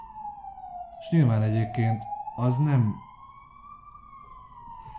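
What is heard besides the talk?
ambulance siren passing outside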